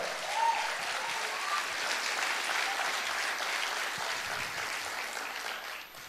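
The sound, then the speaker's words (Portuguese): An audience claps in sustained, dense applause to the Lord, a steady crackling wash of many hands at an even loudness that tapers slightly at the very end. “Dá salve de palmas ao Senhor!”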